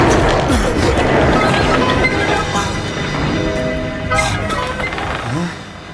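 A loud, sustained rumble with a jolting shudder as a house in the desert is jolted in the middle of the night, apparently by an earthquake, overlaid by its old wooden walls groaning and creaking in drawn-out tones before easing off near the end.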